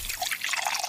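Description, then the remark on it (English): A drink is poured, a steady bubbly splash of liquid running for about a second with no voices around it. “I think it's time for a nice drink, though.”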